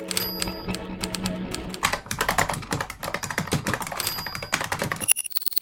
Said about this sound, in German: Tippen, Tasten, Funken, Radio.